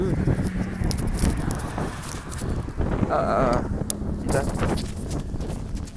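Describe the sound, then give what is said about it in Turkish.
Constant low, rumbling hot foehn wind buffets the microphone outdoors, a loud, rough roar that fills the whole clip, with a brief exclamation from a voice partway through. “Bayağı esiyor rüzgar ya.”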